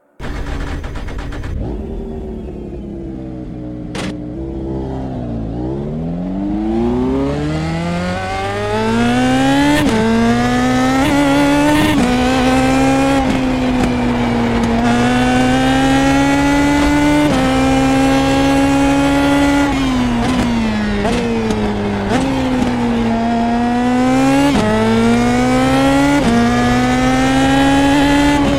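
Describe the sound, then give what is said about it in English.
The engine of a 2017 Indy Pro Mazda race car screams through a lap of the Brands Hatch circuit, revving high with rapid rising pitch sweeps and sharp downshifts as it brakes and accelerates through corners, loud, with no talking. “Let's jump into a 2017 Indy Pro Mazda for a lap around the storied Brands Hatch circuit and let the engine notes be the music.”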